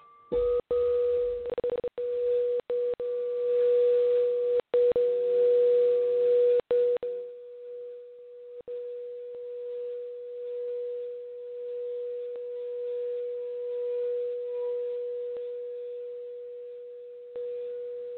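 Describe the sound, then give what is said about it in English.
A crystal singing bowl rings with one pure, steady tone that sustains for the whole stretch, with scattered clicks and knocks over the first few seconds before it continues alone. “You can hear the crystal? I can hear that one, yes.”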